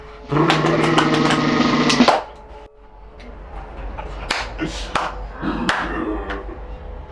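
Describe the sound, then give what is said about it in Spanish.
A snare drum plays a loud, buzzing roll that sustains for a couple of seconds, then sharp, crisp snare hits crack out at irregular intervals over a low rumble. “Esto es redoblante.”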